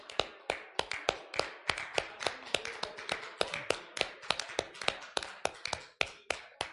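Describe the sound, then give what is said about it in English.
A group claps hands steadily, many sharp overlapping claps forming a loud, uneven patter that keeps going for several seconds, with no voices over it. A church audience gives the Lord a hand clap while people return to their seats. “All right, let's give the Lord a hand clap while you make your way back to your seats.”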